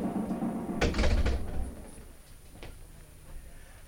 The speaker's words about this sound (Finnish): Suljehan sentään parvekkeen ovi.